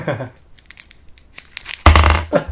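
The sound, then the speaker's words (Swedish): Crinkling of a paper candy wrapper in short rustling bursts, ending in a louder crackling crush, with a bit of voice at the start. “Alltså det var väldigt gulliga papper ändå.”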